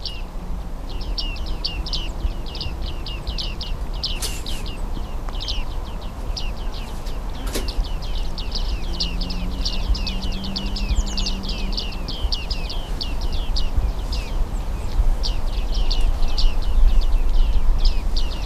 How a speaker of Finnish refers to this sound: Tämä on suhteellisen persoonallinen ääni, tämä ei oikein muistuta Siis tätä on vaikea sotkea muihin lintuihin, muiden niin, lintujen ääniin.